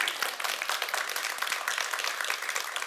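Steady applause from an audience, many hands clapping in a dense, continuous patter that stays fairly loud for the whole few seconds with no voices over it.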